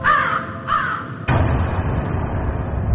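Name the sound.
crow cawing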